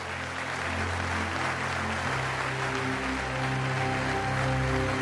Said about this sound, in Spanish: Dale un aplauso al Rey de Reyes, al Señor de Señores. Aleluya. Dale un aplauso grande cuando te pongas de pie, celebra y dile, Señor, sello esta palabra.